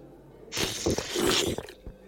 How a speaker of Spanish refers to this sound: … sorbe un espagueti.